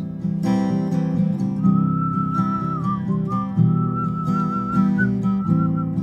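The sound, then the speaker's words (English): A wavering whistled melody from an audience whistling together carries over steady guitar-like accompaniment, the tune rising and dipping in a loose, sing-along way, moderately loud with no talking. “Would you whistle with us?”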